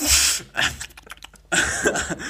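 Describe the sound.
A voice imitates the loud, heavy snorting and huffing of a man while eating, two forceful noisy bursts of breath separated by a brief stretch of softer clicks and sniffles, unaccompanied by talk.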